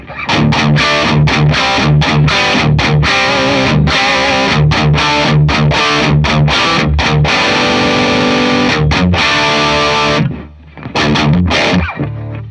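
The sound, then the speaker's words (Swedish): An electric guitar through a distortion pedal set to Thermonuclear, in its rhythm mode, plays a chunky rhythm riff of chopped, palm-muted chords with short gaps between hits, loud and saturated, ending with a brief pause and a final sustained chord. No one speaks. “Här har vi rhythm-läget.”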